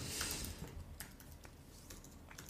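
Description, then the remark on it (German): Quick, irregular clicking of keys on a computer keyboard as someone enters a search term while looking through invoices, fairly quiet, with a brief burst of sharp taps at the start and scattered keystrokes after; no one speaks. “Ich gucke gerade hier in unseren Rechnungen. Äh, Optimizer Alternative habe ich jetzt gerade noch eingegeben.”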